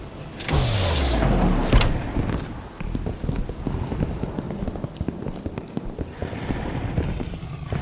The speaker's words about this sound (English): The door slid open immediately after, the electric hum of it assuring Wesley that it was indeed mechanical.